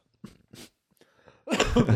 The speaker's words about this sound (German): Sorry, sorry, sorry. Äh, Husten immer schlimm beim Podcasten.